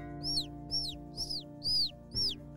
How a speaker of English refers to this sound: and the baby birds are chirping outside.